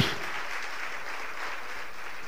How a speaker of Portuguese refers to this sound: Você pode aplaudir o Senhor? Todos nós.